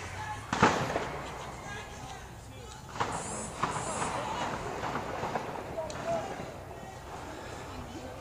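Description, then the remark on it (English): A few sharp gunshots ring out at irregular intervals, the first one loudest, over a steady backdrop of noisy commotion and indistinct voices. The shots are fired into tents from a white car circling around. “A car's been circling around, shooting more uh, shooting more shots into tents.”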